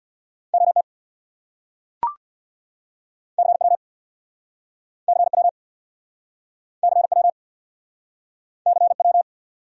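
Very fast Morse code of speed-racing abbreviations at about 50 words per minute: short bursts of a steady mid-high beep tone in evenly spaced groups separated by silence, with one sharp click early on.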